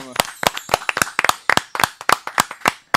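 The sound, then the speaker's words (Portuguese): Audience applause: a quick, uneven run of sharp, bright hand claps from a small group, loud and steady for a few seconds with no voices over it. “Aí, uma salva de palmas para Emerson.”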